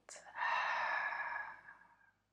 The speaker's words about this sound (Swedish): Ta ett djupt andetag, andas in. Förstärk, släpper ut, andas ut.